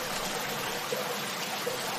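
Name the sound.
river stream flowing water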